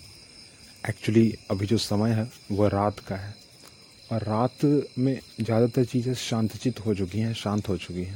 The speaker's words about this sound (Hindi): background में आप बहुत सारी झिंगूर की आवाज़ सुन रहे होंगे